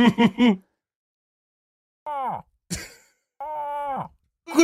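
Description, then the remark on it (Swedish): A person imitates a bull moose call, giving several drawn-out, groaning vocal grunts with falling pitch, separated by short pauses, loud. “Vad vill ni höra för sorts älg? En Sörmlandsälg eller? Så gör alla ljuden.”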